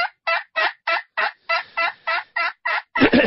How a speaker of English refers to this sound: But that's a aluminum top, slate soundboard, a hole in the bottom big enough two years ago, I killed five different gobblers with this call.